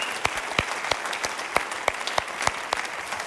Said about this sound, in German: Wirklich nochmal vielen, vielen, vielen, vielen Dank. Das ist euer Applaus. Das ist so gut, ey.